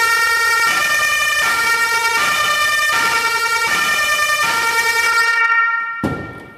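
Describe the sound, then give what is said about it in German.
A loud electronic ambulance siren wails in a steady repeating two-tone pattern, about six cycles of bright harmonic tones, then cuts off abruptly near the end, leaving a brief burst of noise. “Aber das war jetzt bloß das Elektronische.”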